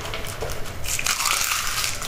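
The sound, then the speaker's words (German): A cat named Mia crunching dry food, a steady run of crisp, gritty chewing bursts that grows denser and louder in the second half, with no voices. “Mia ist immer noch am Fressen, das ist schön.”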